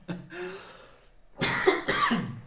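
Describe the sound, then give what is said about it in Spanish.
Two harsh coughs in quick succession, loud and breathy, following a softer voiced sound like a brief hum or throat noise at the start. “Ok, continúa, por favor, que hasta me está dando la tos.”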